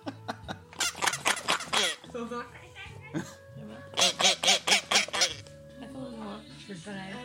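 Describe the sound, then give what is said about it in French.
A toy duck is shaken, its sound box giving two bursts of rapid, nasal quacks, each a quick run of five or six honks, fairly loud, with a few softer squeaky tones in between. “ça, c'était pour le il faut, le- secouer le canard.”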